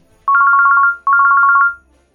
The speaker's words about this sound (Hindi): अगले दिन सुबह पीहू का फ़ोन बजा